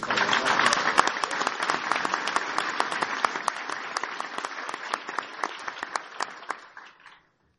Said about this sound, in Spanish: ¿Estamos claros? Un aplauso para ellos.